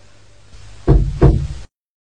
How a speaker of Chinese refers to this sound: 有人敲门了， 快去看看。